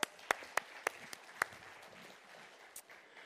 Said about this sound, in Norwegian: Kan du få lov å komme fram? Yes! Vi klapper han fram.